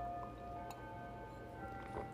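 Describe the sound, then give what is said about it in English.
Clocks ticking softly and going off, with a faint steady hum and sustained ringing tones beneath an occasional sharp tick; no one speaks. “Clocks are going off now. Yeah, now the listen to that. Listen to them clocks.”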